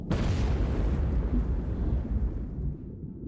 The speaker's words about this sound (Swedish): I torpedrummet stiger temperaturen kraftigt och inom två minuter exploderar en stor del av övriga sprängladdningar.